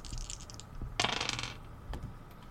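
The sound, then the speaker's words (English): Two ten-sided dice, rolled in place of a D100 die, clatter and tumble across a hard table in a quick half-second rattle, followed by one faint settling click. “This is where I need one of those okay, D100 dice. But I'll settle for two D10s.”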